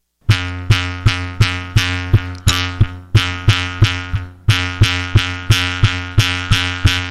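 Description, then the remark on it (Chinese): A bamboo mouth harp, a thin bamboo strip with a thin triangular brass reed set in a narrow slit, is played by pulling its string to vibrate the reed: a steady run of about sixteen plucked twangs, each a sharp attack with a buzzing, droning low tone that rings briefly and decays. Loud and alone, without voices. “这个就是口簧琴的声音。”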